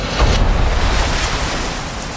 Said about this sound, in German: Wer bei offener Balkontür einschläft, der hat den Soundtrack von Mittelmeerwellen.